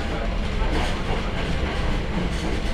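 A Hakone Tozan Railway mountain train in Japan, running from Hakone-Yumoto toward Ohiradai, rolls steadily along its tracks, a continuous low rumble with faint rhythmic rattling and clatter throughout, fairly loud and even, with no voices.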